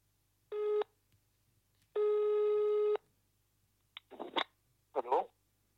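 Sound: telephone ringing tone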